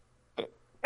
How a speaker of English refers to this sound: Uh, oh, it was a cough, but thank you.